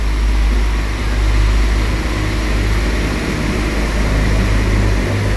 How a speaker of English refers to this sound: Forget what I said in previous episodes about Great Western. Um, the Translink Northern Irish Railways are officially the loudest trains I have ever heard. Um, just listen to this one go.